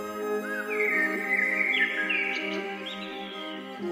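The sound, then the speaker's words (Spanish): Soft bird chirps and short whistled calls drift over a steady, sustained musical drone, the birds sounding light against the continuous tones. “deja que se acerquen a ti los pájaros, atraídos por tu energía, por la música, por tu sentir, y que los escuches”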